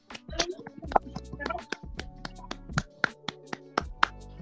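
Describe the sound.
A few people clap together, a quick, uneven patter of sharp hand slaps lasting several seconds, with some faint voices underneath.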